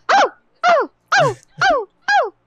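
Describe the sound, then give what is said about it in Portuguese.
A person imitates a dog barking, five short, loud, evenly spaced woofs about half a second apart, with no other talking. “Eu tô as aqui minhas, imitando um cachorro.”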